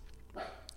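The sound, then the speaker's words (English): A single short dog bark rings out faintly in the background, muffled and brief, against a quiet background with a low steady hum. “sorry about the dogs in the background, guys. I think they're barking at something.”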